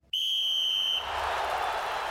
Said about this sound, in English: There it is. That's the full time whistle.